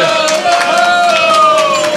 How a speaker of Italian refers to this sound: Un applauso eh, eh